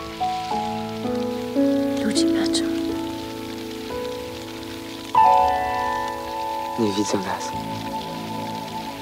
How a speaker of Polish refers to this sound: Deszcz nas zasłania.